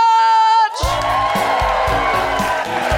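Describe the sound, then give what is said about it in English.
A high, sustained whoop opens, then a loud crowd erupts into continuous cheering and excited whooping that carries steadily to the end. “make incredibly excited woohooing noises for the wonderful Desiree”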